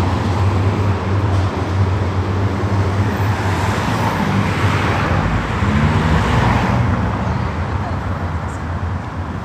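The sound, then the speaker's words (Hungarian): Dense city street traffic on József körút, a city boulevard, rumbles steadily all around as people cross it on foot, with engines droning and vehicles passing in a continuous loud wash. Voices murmur faintly beneath the roar. “A minden esetre most kerünk át a József körúton, úgyhogy egy pillanatra azért megszakítjuk a beszélgetést.”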